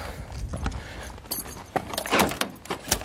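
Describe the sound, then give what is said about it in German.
An old, frozen-over car door is unlatched and pulled open on a frosty winter morning, a series of metallic clicks, rattles and creaks with a couple of sharper clunks near the end; no one speaks. “Erstens muss ich gucken, ob die Klapperkarre noch anspringt. Aufgehen tut sie schon mal.”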